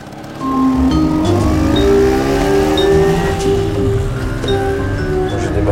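A car drives through city traffic, its engine loud, revving and rising in pitch as it accelerates through the gears with a steady road rumble underneath.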